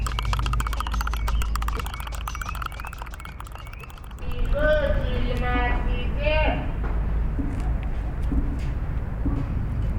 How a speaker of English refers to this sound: It's a coffee street seller, shaking with a spoon the glass of his customer. It's milk.